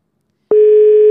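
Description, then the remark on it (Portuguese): A steady electronic ringing tone of an outgoing phone call starts abruptly after half a second of silence and holds loud and unbroken, ringing out with no answer. “Atende o telefone.”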